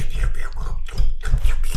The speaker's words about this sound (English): What are you talking about? It's just the way he drinks coffee.